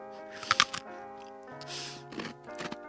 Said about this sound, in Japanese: あのおせんべいすごく美味しそうな音させて食べる人と、うん、ちょっとしけっちゃう人といますね私ちょっとしけっちゃうタイプなんですよね